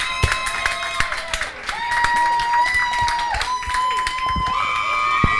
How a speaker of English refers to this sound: Our first live show. Can we clap it up, y'all? Can we clap it up?